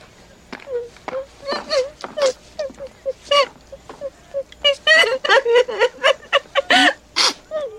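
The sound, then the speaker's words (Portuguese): A woman cries in broken, uneven sobs, with sharp gasping breaths and sniffles between short voiced wails that grow more frequent and intense toward the end. “Você tá chorando? Não! Você tá chorando? Você está chorando?”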